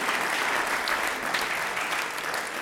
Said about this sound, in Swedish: Jag jobbar här i kyrkan med ungdomar och idag så ska vi få ha dop. Två, ja, vi kan ge dop en applåd. Det är så bra. Det är fest nu.